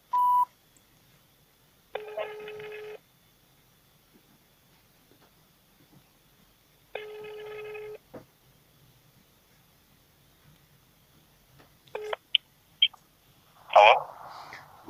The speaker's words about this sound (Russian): Звоним Бийское телевидение 313507. Код города 83854.